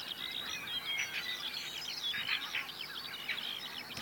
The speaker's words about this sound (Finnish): Tässä kiuru.